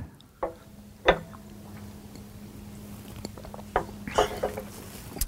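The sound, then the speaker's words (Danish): Someone drinks ice-cold water, downing it in a toast: a few sharp clicks followed by a run of wet gulps and swallows, with a faint steady hum underneath and no talking. “og du bunder det.”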